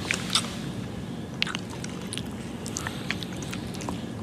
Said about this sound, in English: Then the Victoria's Secret model intensely kisses, and I'm struggling for the right adjective here, a very geeky looking guy. The sloppy kiss lasted a full 10 seconds.